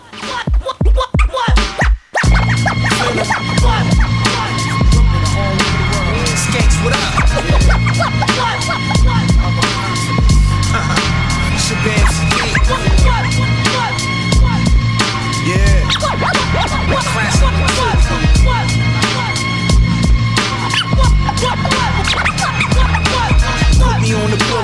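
A loud, dense hip-hop beat with heavy bass and a steady groove, with quick turntable scratches cutting in at the start and recurring over the music throughout.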